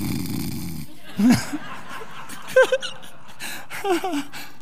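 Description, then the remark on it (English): A voice imitates a woman's soft, dainty, not very loud snore three times in a row, each short nasal snort spaced about a second apart, fairly quiet. “Not very loud, though. It was a real ladylike snore.”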